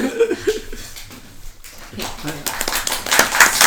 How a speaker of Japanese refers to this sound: そうね、拍手がでかいの。